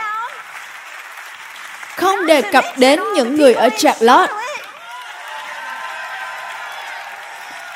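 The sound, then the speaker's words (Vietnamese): Sustained audience applause runs throughout, a dense, even wash of clapping. For a couple of seconds in the middle, a loud voice speaks over it, then the clapping carries on alone. “Tôi hy vọng bạn cũng vỗ tay tại nơi bạn đang ở.”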